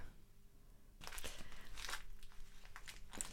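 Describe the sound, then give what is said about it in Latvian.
Paper rustles and crinkles from a falling-apart book, starting after a quiet second and continuing as irregular crackles with a few sharper bursts. Soft overall, with no talking. “Šīs skaņas, kuras jūs varbūt varat dzirdēt, kā čaukstēšana un, un papīra, ir, eh, ir būtībā grāmata, kas vienkārši jūkā ārā.”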